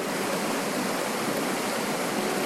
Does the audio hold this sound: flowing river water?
yes